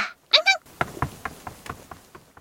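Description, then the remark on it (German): A brief voiced sound, then a quick, steady series of about nine knocks on the door of a dog kennel late in the evening, moderately loud, gradually growing softer. “Weit kam er aber nicht weil es jetzt plötzlich an der Tür klopfte.”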